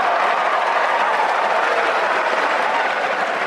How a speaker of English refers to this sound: So, that is raucous applause.